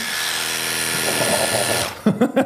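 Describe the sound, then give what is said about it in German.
A cordless, battery-powered dog grooming clipper with a swappable battery buzzes loudly and steadily for about two seconds, then cuts off as a voice briefly speaks. “Mach mal, mach mal so ein Ding an, wir mal kurz hören.”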